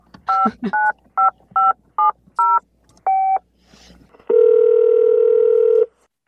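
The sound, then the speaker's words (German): A phone number being keyed in: about eight short two-tone beeps in an uneven rhythm, then a pause and one long, steady ringing tone lasting over a second, with no voices. “Und äh, rufen wir ihn einfach mal an, oder? Wir rufen ihn an”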